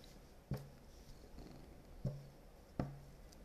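A pet cat named Tom purrs softly in a low, steady rumble, with three dull thumps of its tail landing at uneven intervals over the top. No one speaks.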